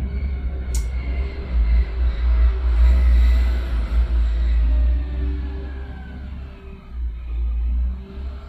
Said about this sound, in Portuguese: Toda vez que um carro passar, eu vou ficar em silêncio, esperando ele passar.